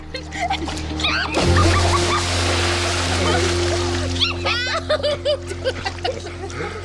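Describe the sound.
A sudden splash of water as a person is thrown into the sea breaks in early, followed by sloshing over a steady low engine hum, with excited voices and laughter throughout.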